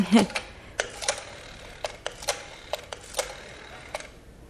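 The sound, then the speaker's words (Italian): A rotary telephone being dialed: crisp mechanical clicks arrive in short, uneven bursts separated by brief pauses, with no other sounds around them. “Scusi signora, mi permette di telefonare?”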